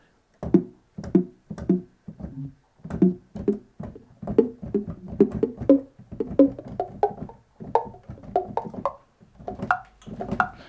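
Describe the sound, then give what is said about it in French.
A short thudding sample of a falling apple, made into a musical instrument, is played as a melody: quick percussive hits in a steady rhythm, with the pitch stepping upward toward the end, clear, with no talking. “Alors, j'ai de nouveau pris le bruit, ce bruit-là dont on vient de parler, donc le bruit de la pomme qui tombe. J'en ai fait un instrument de musique.”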